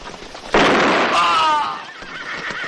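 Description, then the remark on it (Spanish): A sudden loud shotgun blast rings out as a man fires at a horse-drawn carriage on a country path, and a horse's shrill, wavering neigh rises right after it, fading into a lingering rumble of background noise. “Desde lo alto de una pequeña meseta, el hombre de la raja en la frente apunta al carruaje con una escopeta.”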